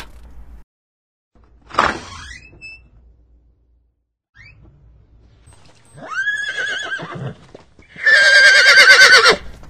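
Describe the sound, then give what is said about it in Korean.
A horse whinnies several times, with the last neigh long, loud and shrill, while soft hoofbeats clop faintly in the background between calls, as a monk is helped onto the horse and it sets off along the road. No one speaks. “그 길로 팔개와 오정은 뒷문으로 가서 삼장을 부축해 말에 태우고 길을 재촉했습니다.”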